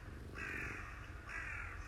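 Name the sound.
crow cawing outside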